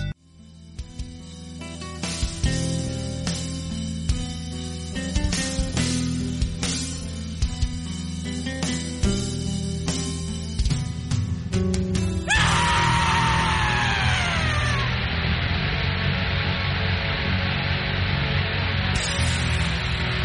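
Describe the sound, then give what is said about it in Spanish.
A loud, dense rock song with pounding drums and distorted guitars, chaotic and unstructured, with harsh screamed vocals; midway it shifts into a sustained noisy wash with descending feedback-like tones. “Ahora que comenzamos con la primera canción, que es …, de 10 minutos de duración, vamos a escuchar un poquito”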